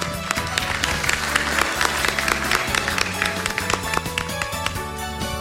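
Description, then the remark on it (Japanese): An audience at an investor-relations seminar in Nagoya applauds steadily for several seconds to welcome a Showa Denko speaker, many hands clapping in a dense, continuous patter at moderate volume, with a sustained low musical tone running underneath and no talking. “どうぞ大きな拍手でお迎えください”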